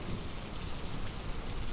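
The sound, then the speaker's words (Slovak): Steady rain pours down on a dusty prairie farm, turning it to mud, in a dense, continuous hiss across the whole clip, with low rumbling underneath and no pauses or voices. “V dnešný upršaný deň sa prašná préria zmenila na bahnom pokrytú krajinu.”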